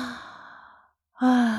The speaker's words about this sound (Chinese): 哈米又打了一个哈欠。